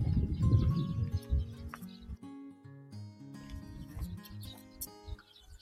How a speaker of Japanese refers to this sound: ほら、今日はさ、天気が穏やかだから鳥が鳴いてるよ。Can you hear the birds singing? They're on the tree now. A lot.